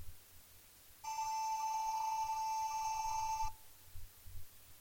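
A loud, steady synthesizer tone with a bright, buzzy edge holds one pitch for about two and a half seconds, then cuts off abruptly, leaving faint low rumbling behind it.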